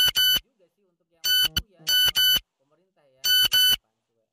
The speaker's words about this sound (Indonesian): notifnya suaranya kayak HP jadul ya emang sengaja biar nyentrik coy